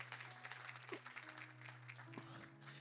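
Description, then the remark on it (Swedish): A conference audience claps steadily for a few seconds after worship time, a dense, continuous patter of many hands with a low steady hum underneath. “Amen, en applåd till dem.”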